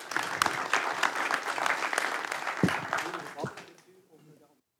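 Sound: audience applause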